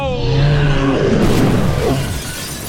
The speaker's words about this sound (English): The car smashes into his legs, bringing the car to a halt.